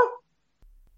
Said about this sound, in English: Just for the listeners, that's the cat